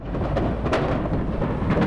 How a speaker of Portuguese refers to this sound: Repare que um carro de passeio aguarda na praça de pedágio, quando é atingido em cheio pelo caminhão carregado com desodorantes. E uma grande explosão acontece.